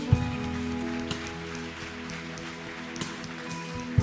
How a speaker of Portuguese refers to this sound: Você pode aplaudir o Senhor teu Deus nessa noite?